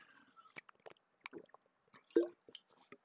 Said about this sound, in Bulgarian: Извинявайте, ще, ще отпия вода обаче.